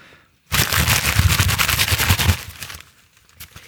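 Loud, dense rustling bursts in abruptly and carries on for about two seconds as a busy crackle, like crumpled paper or plastic, then trails off into faint scattered crinkles.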